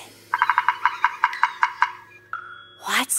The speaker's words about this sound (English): It's a woodpecker.